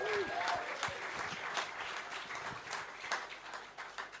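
An audience claps steadily, a dense wash of many hands that holds at an even level for a few seconds with scattered sharper claps. A voice briefly sounds underneath.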